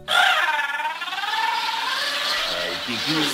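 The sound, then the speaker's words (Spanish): A comedic character in a sailor suit and colourful cap lets out a loud, exaggerated crying wail in a high, wavering voice, drawn out continuously for a few seconds with a bleating, sobbing quiver, heard alone. “Este personaje mostraba algunas cualidades únicas, como cachetes inflados, ojos saltones, piernas torcidas, traje de marinerito, gorra de colores y un llanto único.”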